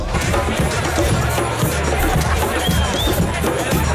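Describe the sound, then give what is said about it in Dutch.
A large crowd fills the Museumplein square on a Sunday with a dense, steady roar of overlapping voices and murmur, with a brief faint whistle rising above the din partway through. “Daar werd traditioneel getrouwen koffie gedronken zondag.”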